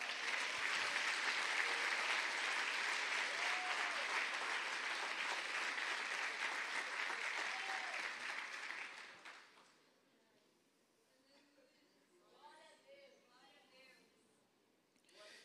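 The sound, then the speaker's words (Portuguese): An audience claps loudly and steadily for Jesus for about nine seconds, a dense wash of applause that then fades away as a single voice begins speaking. “Vamos aplaudir a Jesus, amém?”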